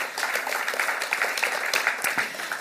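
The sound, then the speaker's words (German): Steady applause from a theatre audience, many hands clapping in a dense, continuous wash that holds at an even, fairly loud level throughout, with no voices. “Und da wir im Theater sind, haben wir diesmal sogar Beifall.”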